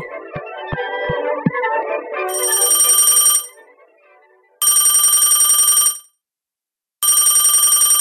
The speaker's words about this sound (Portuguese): Dona Claudine não atende o telefone quando eu mais preciso.